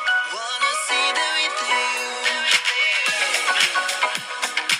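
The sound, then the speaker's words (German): A song plays loud, with melodic sung vocals gliding over a steady, punchy beat and bright layered instruments throughout. “Also, Damn, diese Vocals. Ich bin Fan. Die Vocals sind der Hammer.”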